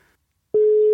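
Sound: telephone ringing tone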